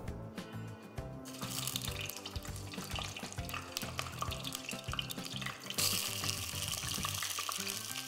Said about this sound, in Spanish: Y aquí voy a poner a dorar las costillitas de cerdo que ya tengo cocidas, nada más las quiero dorar para darle otro aspecto, pero ya están cocidas en agua y las vamos a freír aquí para darles un tono, una consistencia más de costillita dorada.